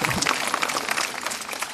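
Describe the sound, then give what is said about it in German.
An audience at a book fair in exhibition hall 3 claps together in a dense, steady burst of applause that holds at an even level for a couple of seconds, with no voices over it. “ja, da kommt doch noch ein Applaus.”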